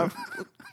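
A mobile phone notification goes off once in the middle of a broadcast, the first time since 2010 that the phone has sounded, a short nasal, honk-like tone lasting under a second, clear, with no one talking over it.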